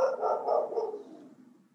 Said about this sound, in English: there's a dog now even the dogs even the dogs have sounds